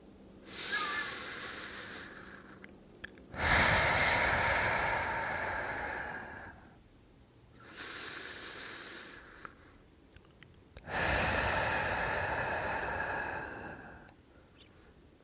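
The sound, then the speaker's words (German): Slow, deep breaths: two long inhale-exhale cycles, breathing in for a count of two and out for a count of four, each a soft airy rush followed by a louder, fuller exhale, with brief quiet pauses between. “Lass uns ein paar Atemzüge nehmen. Wir atmen ein auf zwei und atmen aus auf vier.”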